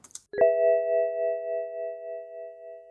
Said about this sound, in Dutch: Als ik een waarschuwing wil laten horen die niet per se levensbedreigend is, dat er wel iets is waar eventjes de aandacht voor nodig is, maar je auto valt niet uit elkaar op dit moment is dat bij BMW is dat zo.